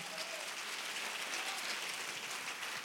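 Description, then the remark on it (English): An audience claps their hands together during a praise break in a dense, steady wash of crisp claps, lasting the whole stretch with no break or change in loudness and no voices standing out. “Come on, somebody clap again.”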